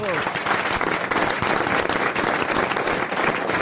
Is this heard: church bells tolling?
no